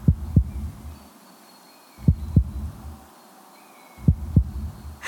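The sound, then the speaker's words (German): A heartbeat racing with joy thumps in deep, paired beats, three double-thuds spaced about two seconds apart, over a faint hissing background with a few thin high whistles. “Cool, Leute, hört mal, mein Herz rast vor Freude.”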